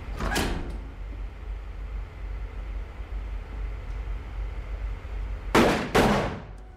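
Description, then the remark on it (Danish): In a film scene of two generals bidding farewell to the world, a door thuds shut near the start, then after a stretch of low background hum two loud, sharp gunshots ring out in quick succession, each trailing off briefly. “en røget cigaret øh, bliver mast øh, mod en støvle, en dør bliver lukket, og to skud lyder.”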